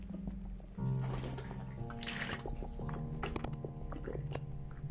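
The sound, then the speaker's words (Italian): Someone takes a sip of water at the mic, with wet mouth sounds and a swallow over a steady low hum; nobody speaks. “Scusatemi, ho bisogno di bere un boccio d'acqua, eh, l'acqua, eh, aria e acqua, capito?”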